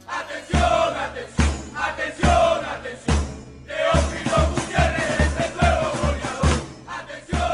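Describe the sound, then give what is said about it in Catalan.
A loud football crowd chants a song dedicated to striker Teófilo Gutiérrez in unison, voices rising and falling in a steady rhythm over heavy, regular thumping beats, like drums or stamping, throughout. “No és gaire original la cançó que li dediquen, però vaja, tu habitualment el nom de Teo eh, eh li dones un punt d'innocència, perquè sí.”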